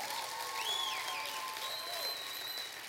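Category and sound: crowd, audience applause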